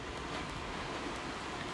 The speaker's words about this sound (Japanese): え皆さん聞こえますでしょうかこれあのリアルな波の音を、えー、バックに今日は収録をしております